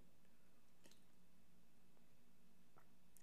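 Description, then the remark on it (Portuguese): Soft wet sounds of swallowing water, a few brief gulps and squishy mouth noises spaced apart over quiet background hiss, with no talking. “é SMR, minha água.”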